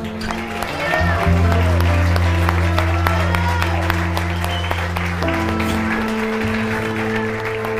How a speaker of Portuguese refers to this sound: um aplauso a ele.